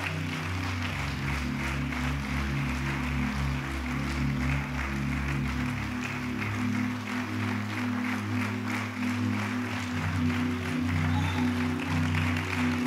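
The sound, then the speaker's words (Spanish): An audience applauds the Lord Jesus Christ steadily for several seconds, the dense clapping sustained at an even level, with a low, droning musical tone held underneath throughout. “Dale un aplauso de de veras.”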